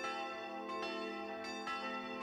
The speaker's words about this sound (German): Glocken sind uralte Signalgeber. Sie können viel lauter rufen als ein Mensch. Ihr Schall verteilt sich in Sekundenschnelle, läuft viel schneller als der schnellste Menschenbote.